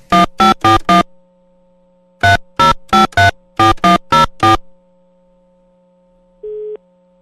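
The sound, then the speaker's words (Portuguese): Rapid electronic phone beeps in three quick bursts of four, like keypad tones, as a radio host dials a phone to call the first person, then a pause and a single steady call tone. No one speaks. “Bom, deixa eu ligar pro primeiro.”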